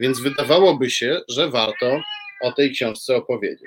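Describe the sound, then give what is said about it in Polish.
A tomcat frightened by lightning lets out one drawn-out, wavering meow in a brief pause while a man talks steadily before and after it, the cat's cry clear. “To, co słyszycie, to jest e, Rysiek, kocur mój, który się przestraszył właśnie.”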